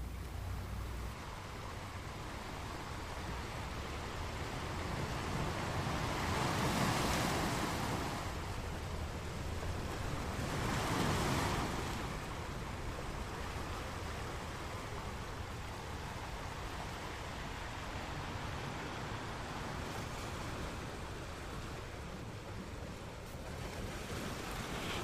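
Ocean waves break on the shore in a steady, rushing roar, with two louder surges swelling and fading in the first half. Wind blows over the water, and nobody speaks.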